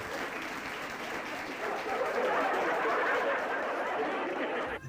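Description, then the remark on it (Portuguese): A steady burst of applause, dense and even, clapping swelling slightly in the middle and continuing for several seconds before cutting off abruptly, with faint laughter mixed in. “Palmas pro Pleonato.”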